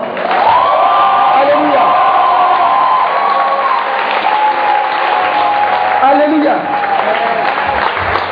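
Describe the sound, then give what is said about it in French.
An audience at a family Mass bursts into sustained cheering and applause to celebrate God, dense clapping under loud whoops and a long, high sung-out shout that rises and falls over the steady roar of the crowd. “Comment est-ce que tu célèbres Dieu Comment est-ce que tu célèbres Dieu Est-ce que je peux entendre des acclamations”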